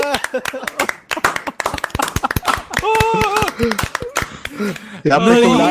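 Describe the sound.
Rapid, uneven hand clapping, a burst of sharp claps lasting several seconds while voices talk and laugh over it, welcoming a returning member of a gaming group, then the clapping fades as speech takes over.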